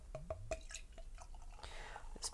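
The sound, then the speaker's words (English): Quiet pouring of beer from a bottle into a glass with a soft fizzing hiss, broken by little drip-like splashes and gurgles, then a brighter crackle of bubbles near the end as it forms a tan foamy head. “pouring wonderfully. Actually, it's a little bit fizzier than I expected on appearance. Don't know if you can hear that.”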